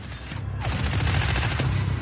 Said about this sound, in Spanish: La policía continúa disparando y alcanza a Moscú.